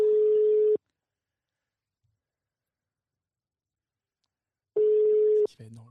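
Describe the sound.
A telephone ringback tone sounds twice as a call is placed to the director general of Now Coworking, each a steady mid-pitched buzz under a second long, separated by a long silence. A voice briefly starts answering right after the second ring.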